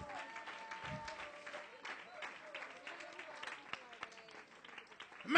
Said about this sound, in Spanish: ¿Alguien puede aplaudir la gloria de Dios?